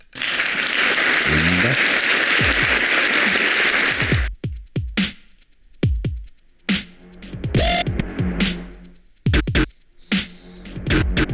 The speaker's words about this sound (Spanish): Pachangueando, una buena de aplausos ahí por, el público.